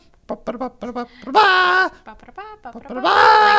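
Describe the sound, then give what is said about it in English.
A dog squeezes a squeaky rubber koi fish toy in quick bursts, short chirps followed by two long, loud wheezing squeals at shifting pitches, almost tune-like. “And she happens to uh, it, she she plays a little tune with it at this point, like this.”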